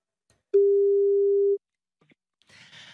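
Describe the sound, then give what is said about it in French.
A single steady, clear telephone ringing tone sounds for about a second as a call is placed to wish someone a happy birthday. After a short quiet comes a brief muffled rustle like a handset being picked up. “Fais le numéro.”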